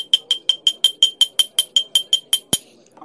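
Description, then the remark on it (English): A drinking glass full of Dr. Brown's drink is tapped rapidly like a bell, about fourteen bright ringing clinks in a steady, quick rhythm, ending with one sharper knock. Clear, with no talking. “the only thing I had available to make a noise, my glass here, which is full of uh, Dr.”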